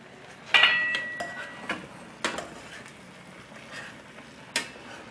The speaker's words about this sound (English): Oh, the boiling is getting out of hand.